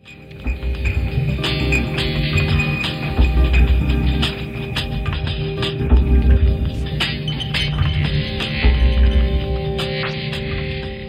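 A buzzy, heavily distorted fuzz guitar tone drones steadily, with a mouth-harp-like wobble and low pulsing thumps recurring every few seconds. No voices.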